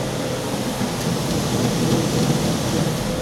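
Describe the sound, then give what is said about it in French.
A malt mill in a brewery crushes different malts for the next day's brew with a steady, dense rumbling hiss, fairly loud, holding constant without pauses for the whole stretch. No voices are heard. “C'est le concassage Voilà, c'est le début du concassage.”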